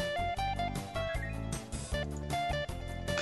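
A short burst of upbeat video game music from Professor Layton and the Miracle Mask, loud, with a bouncy rhythmic bass pulse under bright melodic tones, playing alone without any voices.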